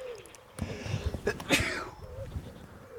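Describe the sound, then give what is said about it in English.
A single sharp sneeze from a person with a cold bursts out midway, preceded by a couple of short catching breaths, with faint birdsong chirping in the quiet background of a garden on a sunny, cloudless day. “and I'm sneezing.”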